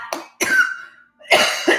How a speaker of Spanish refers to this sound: ahí me dio la tosecita, me disculpan pero gracias por estar conmigo.